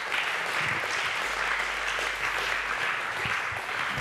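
A crowd applauds steadily for a volunteer test person at a talk, a dense wash of many hands clapping at an even, fairly loud level throughout, with no voices rising above it.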